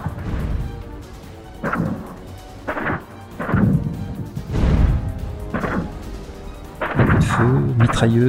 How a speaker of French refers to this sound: explosion étouffée, Les forces spéciales étaient maintenant au contact de l'ennemi